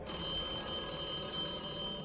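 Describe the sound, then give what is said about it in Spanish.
A landline telephone rings at home after 10 at night with a continuous, rattling electric bell, loud, sustained for the whole moment with no voices. “Entonces sonó el teléfono.”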